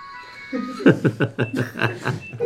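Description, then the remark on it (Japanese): A faint, steady electronic phone tone sounds briefly in the background, then someone breaks into several short bursts of chuckling laughter. “あなんかちょっと、どっかあれですね。なんか、なんか電話の音が聞こえてよ”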